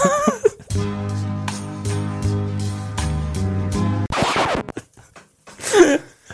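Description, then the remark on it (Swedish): A few seconds of a recorded song plays at full volume, with steady bass notes and sustained chords, then cuts off abruptly and gives way to brief talk and laughter. “Men hur låter originalet?”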